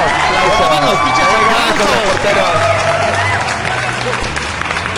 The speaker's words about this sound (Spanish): aplausos